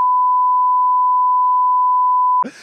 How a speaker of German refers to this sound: Tja, leider Gottes wurde gepiept jetzt hier gerade an dieser Stelle, ne? Ich weiß es nicht, aber ich wollte, ich musste diese Namen aussprechen.